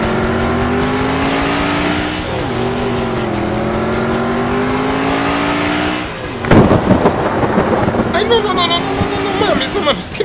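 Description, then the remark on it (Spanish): A steady engine drone gives way to a sudden loud crack of thunder, followed by a rough, rolling rumble that lingers and fades unevenly over several seconds. “vaya a llover, que no vaya a llover.”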